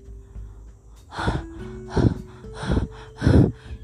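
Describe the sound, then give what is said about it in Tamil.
A voice imitates a deer panting heavily after running far to escape a lion: four loud, breathy gasps in a steady rhythm, each a rough rush of air, with no talking. “எக்கச்சக்கமாக மூச்சு வாங்குது உயிரை காப்பாற்றுறதுக்காக வேற ஓடிச்சுல்ல ஓட்டமும் ஜாஸ்தி மூச்சு வாங்குறதும் ஜாஸ்தி ரொம்ப நேரத்துக்கு அப்புறமா தான் மூச்சு வாங்குறது கொஞ்சம் குறைய ஆரம்பிச்சிச்சு”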